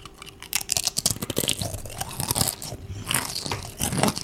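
Crisp crunching as someone bites into a crunchy snack, followed by steady, rapid chewing with dense crackling textures throughout, no talking.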